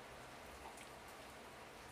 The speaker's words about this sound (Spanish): Porque ya es, son la una de la mañana, desde, donde me encuentro grabando, más aparte de que ya está cayendo la agüita, ya está lloviendo bien a gusto